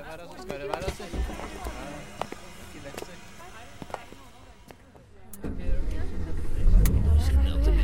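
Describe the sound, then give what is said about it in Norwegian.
People talk and shuffle about as a group boards a bus, then the bus engine starts up in the final few seconds as a deep, steady rumble that grows louder. “Inn på bussen, alle mann.”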